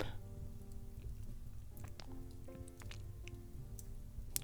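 A fireplace fire burns quietly, with scattered sharp pops and crackles over a low, steady roar. Soft, with no voices.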